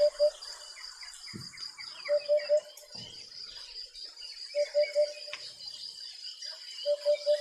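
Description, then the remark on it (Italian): A Eurasian hoopoe calls its soft, hollow "oop-oop-oop" in evenly spaced groups of two or three notes, repeated four times over a steady background of chirping birds and insects. “È proprio un puppa.”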